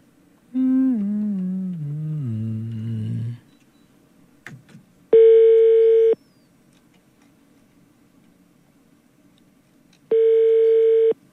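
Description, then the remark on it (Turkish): A phone line ringing out as the Kafa Radyo show calls a cardiology specialist: two steady electronic ring tones about five seconds apart, each lasting roughly a second, preceded by a descending warbling tone sweep. No voices. “Az daha kapatıyordum telefonu.”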